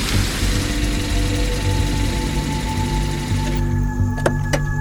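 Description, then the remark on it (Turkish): A steady engine rumble from a minibus slowing as it approaches and pulls up to a stop, its roar easing to a quieter idle near the end, followed by a couple of sharp mechanical clicks. “Yaklaştıkça yavaşladı minibüs. Sonra usulca gelip önlerinde durdu.”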